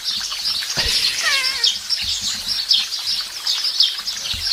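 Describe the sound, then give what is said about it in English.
An ambient recording of sparrows chirping busily and continuously, a dense chorus of quick, high tweets overlapping throughout, with a soft low outdoor rumble underneath and no one speaking. “Actually, this one might be a little bit too chirpy.”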